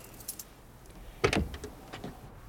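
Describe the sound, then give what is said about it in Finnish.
Keys jangle in a short metallic burst, with a louder rattle in the middle and lighter chinks before and after, with no talking. “Otin avaimet mukaan.”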